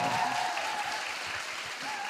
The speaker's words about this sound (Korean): 자, 그런 의미에서 네. 다시 한 번 좀 환영의 박수 좀 부탁드리겠습니다.